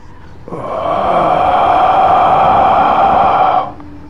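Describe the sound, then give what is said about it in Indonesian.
A voice imitates a heavy, growling exhale: one long, rough breath pushed out steadily for about three seconds, fairly loud, with a throaty rumble, then stopping abruptly. “Ketika suara itu hilang, pas banget ketika suara itu hilang, tiba-tiba tepat persis dari arah ubur-uburku terdengar suara hembusan napas yang berat dan seakan mengeram.”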